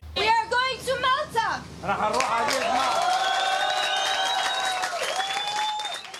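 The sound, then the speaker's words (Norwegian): A crowd on board the ship Akvarius erupts in loud cheering and whooping as they learn the ship may dock in Malta, with high excited shouts and yells layered over continuous clapping and applause, sustained throughout. “Voldsom jubel om bord idet de får vite at skipet får lov til å klappe til kai på Malta.”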